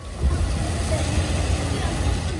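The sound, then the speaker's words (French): Heavy trucks and excavators rumble steadily and loudly, a continuous low drone of machinery working without pause, hauling huge blocks of black rock to build more than 3 km of walls in the Gendar district on the Langue de Barbarie, Saint-Louis. “les machines s'activent désormais à charrier d'immenses blocs de roches noires pour ériger plus de 3 km de murailles”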